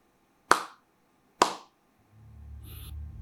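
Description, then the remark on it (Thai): Two sharp, loud hand claps from outside, about a second apart, each with a short echoing tail; the last clap comes from a different direction, to the right and slightly behind. A low steady rumble fades in afterward. “และที่มันน่ากลัวมากยิ่งกว่านั้นก็คือ ทิศทาง เสียงตบมือครั้งสุดท้ายไม่ได้ดังมาจากทางเดิมที่พวกเขาคุยมาตลอด มันอยู่ถัดไปด้านขวาเยื้องไปข้างหลังอีกสักหน่อย”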